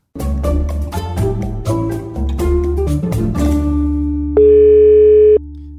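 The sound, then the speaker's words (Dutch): Rhythmic music plays for about four seconds, then a loud, steady telephone dial tone sounds on its own for roughly a second before cutting off, as a phone call is being placed. “Duurde even voordat we, voordat we klaar waren en ready om je, om je, om je te bellen hoor.”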